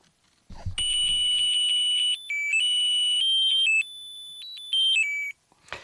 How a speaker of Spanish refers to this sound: Hay otra felicitación con música, muy musical. Les voy a poner un poquito la música para que la escuchen. Suena un poco, un poco, un poco a chip, porque es así, pero aquí la tienen.